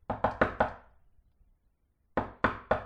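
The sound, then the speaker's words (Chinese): A man in white knocks on a door: four quick, sharp raps, a pause of over a second, then three more evenly spaced knocks. The hits are fairly loud and solid, with no voices. “第二天上午，白衣男人又来敲门。”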